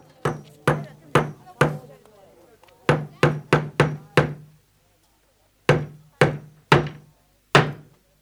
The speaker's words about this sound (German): ein Zettel wird an eine Tür genagelt.